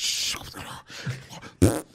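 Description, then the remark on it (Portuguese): A voice imitates the sputtering, farting squirt of a ketchup sauce bottle: a few short, wet, noisy bursts, then one louder blast near the end. “O, o ketchup. O, ah, o molho. Peidar.”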